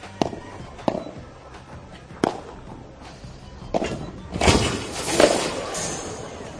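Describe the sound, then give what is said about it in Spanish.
A few sharp thuds and knocks, then a loud, sustained crash as a big, heavily built professional player slams into a glass wall during a tournament and the glass shatters with a bright, hissing spray of fragments. No voices. “Pues es un tío grande, sí, en todos los aspectos, por eso con un simple choque contra el cristal pueden pasar cosas como esta.”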